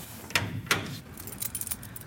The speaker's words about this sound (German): ist Stadtarchivar in Pfaffenhofen und sperrt die Tür auf.